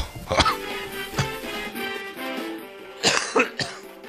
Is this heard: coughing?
yes